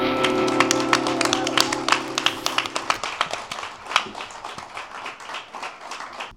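An audience claps for several seconds to welcome the new editors of the magazine Blad, the sharp hand claps dense at first and then thinning out into scattered claps as the applause fades. A sustained tonal hum runs beneath the first half.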